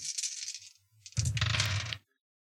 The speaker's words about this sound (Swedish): Om jag slår högre med hans antal tärningar, då kommer han undan.